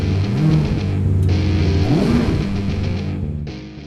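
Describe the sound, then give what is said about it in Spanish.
A car engine rumbles loudly, then revs up with a quick rising whine about halfway through before settling into a steady roar. No one speaks. “Y sin más, arrancamos motores.”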